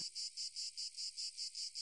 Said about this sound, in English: evening cicadas shrill in the maples.